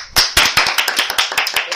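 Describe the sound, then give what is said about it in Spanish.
A short burst of applause: sharp, steady hand claps at a brisk pace, loud, from what sounds like a few people, with no talking over it. “Un aplauso, por favor.”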